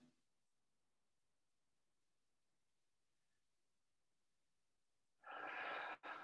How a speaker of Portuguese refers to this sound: Com uma respiração profunda.